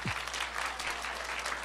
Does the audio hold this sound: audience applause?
yes